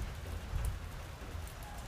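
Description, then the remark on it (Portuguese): Steady rain falls during a thunderstorm in a continuous soft hiss, fairly quiet and even throughout, with a low rumbling undertone that swells briefly near the middle. No one speaks. “Você ouve a chuva?”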